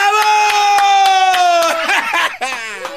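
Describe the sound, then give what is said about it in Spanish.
Steady rhythmic hand clapping runs beneath a loud, sustained cheering voice that holds a long whooping tone before breaking into excited shouts near the end. “no, muy bien, se ganó el aplauso”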